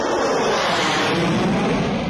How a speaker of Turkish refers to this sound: Bölücü terör örgütünün üst bölgesine saldırısı sonrası jetler peş peşe havalandı.